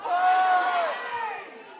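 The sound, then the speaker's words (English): An audience, after a one-two-three countdown, shouts out their favorite beaches all at once in a loud, jumbled burst of overlapping voices calling out different words, swelling quickly then tapering off over about two seconds. “Yell out your favorite beach. One, two, three.”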